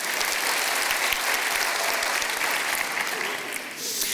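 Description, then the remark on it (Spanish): A large crowd claps loudly and steadily as applause for the Lord, a dense roar of many hands for several seconds before easing slightly at the end. “Dele un aplauso fuerte al Señor, tome su lugar.”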